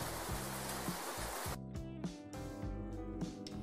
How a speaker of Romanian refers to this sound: Uh, de exemplu, sunet de ploaie. Plouă.